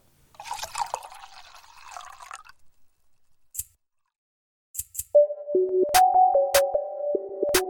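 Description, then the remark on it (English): Guinness beer gurgles and hisses as it pours into a glass for about two seconds. A few sharp clicks follow, then a steady stepping tone with taps. No one speaks. “Let me get you a good Guinness pour.”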